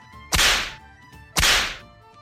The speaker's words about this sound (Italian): E adesso se ci metti l'effettino della frusta qua è perfetto.